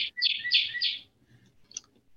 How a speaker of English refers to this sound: that's a macaw, I think.